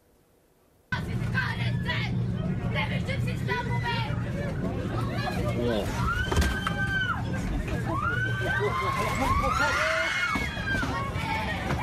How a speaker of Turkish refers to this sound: Sayın seyirciler, İstanbul-Bursa seferini yapan deniz otobüsü fırtınaya yakalandı. Beşik gibi sallanan deniz otobüsündeki yolcuların bir kısmı fenalaşıp yere yığılırken o anlarda çığlık sesleri birbirine karıştı.